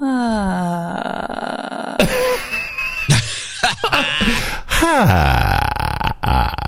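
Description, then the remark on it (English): A voice glides downward into a low, rattling creak of vocal fry, the lowest voice register, then produces several short, gravelly croaks and groans, fairly loud. “a low staccato vibration during speech produced by a low fluttering of the vocal”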